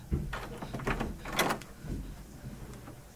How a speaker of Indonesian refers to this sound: Ketika Ika membuka gagang pintu, Ika mendengar sesuatu.